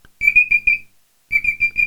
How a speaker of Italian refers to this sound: Beh, smettila di fare la sveglia!